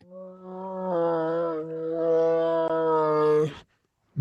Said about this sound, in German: Was ist denn das? Ein Tiger? Ne? Ein Tiger, der am Gehen ist. Den muss ich mir nochmal geben. Den muss ich mir nochmal geben. Wie so ein sterbender Schwan.